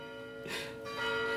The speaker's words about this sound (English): There are bells in Bayview that go off uh, periodically through the day. It's kind of the old world charm. And I'll just share a quick story while they're while they're ringing.